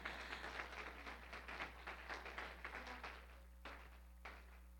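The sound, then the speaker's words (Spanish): A crowd applauds a visiting friend from the Casa de Justicia y Amor with a dense, crackling patter of many hands clapping at once, then fades out to a few scattered, isolated claps near the end. “Le damos un aplauso, por favor.”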